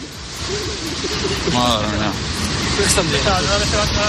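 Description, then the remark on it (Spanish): Storm waves up to 8 or 9 metres high crash against the Paseo Nuevo seafront promenade in San Sebastián on a Friday, in a continuous, loud roaring wash, with people's voices faintly audible over the surf. “Este es el sonido de las olas golpeando este viernes contra el Paseo Nuevo de San Sebastián, olas de hasta 8 o 9 metros de altura.”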